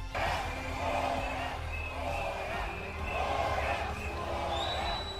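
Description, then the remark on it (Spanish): A large crowd outdoors, including dozens of independence supporters, shouts "queremos la verdad" and boos politicians at a tribute, breaking the minute of silence, with rising and falling waves of chanting voices over a steady low rumble. “Gritos de queremos la verdad y abucheos a los políticos hasta el punto de que incluso han roto el minuto de silencio.”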